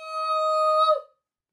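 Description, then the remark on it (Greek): Two whistles blown together by Hermes and Lily in a forecourt, in a single steady, shrill blast lasting about a second, loud, before cutting off into silence. “Στον προάβλιο λοιπόν ο Ερμή και η Λίλη βγάζουν τι σφυρίχτρε και σφυρίζουν ταυτόχρονα.”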